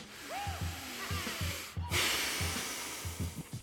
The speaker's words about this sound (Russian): вот этот процесс вдох-выдох, он все время повторяется.